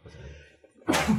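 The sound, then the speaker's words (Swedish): A single loud, explosive sneeze bursts out after a moment of quiet, faint murmuring, a sharp hissy blast that cuts off quickly. “Nej men nej, eh, prosit tack.”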